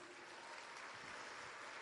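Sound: audience applauding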